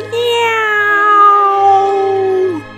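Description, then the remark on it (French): A person imitates a cat with one long, drawn-out meow through an open mouth during a guided stretching exercise, starting higher and sliding gradually lower in pitch for over two seconds before breaking off, loud. “Maintenant, ouvre la bouche. Et laisse sortir un miaou”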